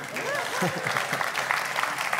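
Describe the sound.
An audience breaks into steady applause for the speakers' neighbour, a dense, continuous patter of many clapping hands, with a few voices calling out beneath it for the whole couple of seconds.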